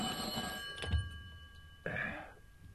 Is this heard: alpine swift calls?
no